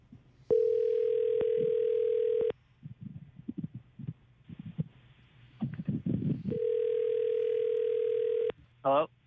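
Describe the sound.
A steady telephone ringback tone sounds twice in long, loud bursts as the Mix 94.7 radio show places a call, separated by a stretch of low murmuring voices and rustle, ending with a short chirpy electronic blip.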